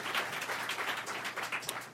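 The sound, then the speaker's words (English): Steady applause from a crowd for a panel's panelists, dense overlapping claps forming a continuous crackling wash at moderate volume, with no voices. “Welcome uh, uh applause for our panelists.”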